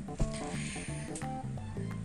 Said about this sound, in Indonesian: eh gue kentut lagi demi nggak bau nggak bau demi apapun nggak bau